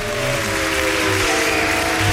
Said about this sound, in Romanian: Aplauze! O, Doamne! O, Aplauze. Doamne!